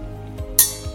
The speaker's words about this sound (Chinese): 这个就是小精灵们在玩锣的声音。